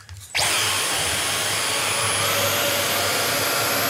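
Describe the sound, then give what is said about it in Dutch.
A Dyson vacuum cleaner switches on after a brief quiet moment and runs steadily at full power over milk powder, a loud whine with a high-pitched tone that rises slightly partway through as the suction picks up on detecting the dirt. “Want ik heb zelf een Dyson, een, paar eh, edities eerder dan deze.”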